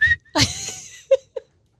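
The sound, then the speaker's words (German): A person whistles a few short, bright notes: one sustained tone, then a sliding sweep, followed by two brief chirps and silence. “Also entweder nach jedem Satz einmal pfeifen oder du kannst nur noch schreien.”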